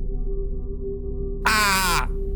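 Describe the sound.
A person's voice imitates a grandmother's scream: one sudden, loud, shrill cry lasting about half a second, over a steady low background hum.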